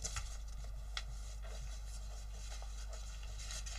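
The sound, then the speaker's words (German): Soft crinkling and rustling of stiff, hard paper being folded in half down the middle to make an origami crane, with a few sharper crackles scattered among quieter handling sounds, fairly faint, with no voices. “Wir falten das hier in die Mitte.”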